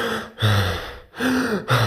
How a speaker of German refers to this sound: was passiert, wenn ich lang und stressig atme ja, dann werde ich in der Regel über den Brustkorb atmen. Ja, also ganz viel Brustatmung passiert da, ganz viel Mundatmung, damit der Körper viel Sauerstoff aufnehmen kann